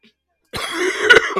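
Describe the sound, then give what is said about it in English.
A short burst of harsh, phlegmy coughing close to the mic from a person who is sick, a few rough hacks running together after a moment of silence, with no talking. “If I have a crazy coughing spell, I'll make sure to mute the mic.”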